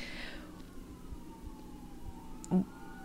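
A siren wails, its tone sliding slowly downward as an emergency vehicle passes, with low traffic rumble underneath and a brief thump near the end.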